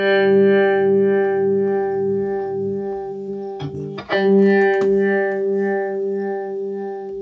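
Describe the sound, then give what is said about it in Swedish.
A single sustained electric guitar note played through a harmonic tremolo pedal pulses with a steady, throbbing tremolo, its harmonics wavering in level; brief string scrapes and picking noise interrupt midway before the note rings on alone. “och här kan man ju också lyssna på, det här är ju alltså Harmonic Tram med någon liten face-grej kanske, ska, kan man väl säga.”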